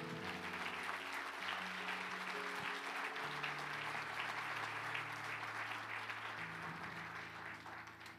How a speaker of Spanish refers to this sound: ¿Puedes darle un aplauso fuerte al Señor?